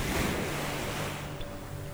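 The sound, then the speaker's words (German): Ocean waves wash steadily onto a sandy beach, a continuous soft roar of surf that swells slightly at the start and then settles, heard alone at a moderate level. “schauen aufs Meer.”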